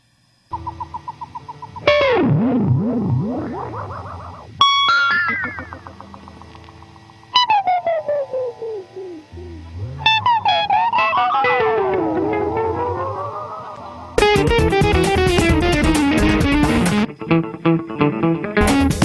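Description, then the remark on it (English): Spacey electric guitar effects play alone as a separate recorded 'space guitar' effects track, layered with lead and rhythm guitar tracks over a basic backing track: swooping pitch bends, echoing swells and warbling tones, ending in a loud, dense burst of distorted noise. “he recorded three tracks a lead guitar, a rhythm guitar, and a space guitar, which is like these random effects.”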